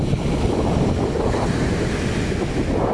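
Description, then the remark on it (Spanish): Continuous roar of sea surf washing onto a clean sandy beach, steady and fairly loud, with gusty wind buffeting the microphone throughout. No voices. “No hay tanta gente, estoy rodeada de gaviotas, de arena, de sol y de este hermoso mar.”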